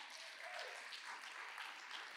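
An audience applauds the Lord in a dense, steady wash of clapping, many hands blending into an even crackle with no pauses and no voices standing out.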